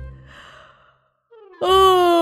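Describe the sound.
A big, loud yawn performed by a human voice as a huge, lumpy creature: a breathy inhale, a brief pause, then a rising tone that swells into a long, full-throated, drawn-out vocal yawn.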